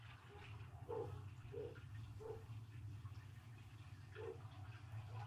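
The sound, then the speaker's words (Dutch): Muffled splashes of water plop at irregular moments, about four in all, over a steady low rumble, with a faint hissing wash in the background, in a soundscape of the city of Amsterdam under water in the future. “Als het goed is, komt hij nu onder mijn woorden, komt hij al langzaam naar voren, namelijk deze plons.”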